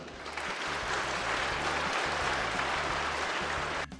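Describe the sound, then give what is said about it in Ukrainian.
Sustained audience applause, a dense wash of many hands clapping steadily at a fairly loud level for about four seconds, then cutting off abruptly near the end. “І це ж навіть без таблички аплодисменти, знаєш, яку так мають пронести.”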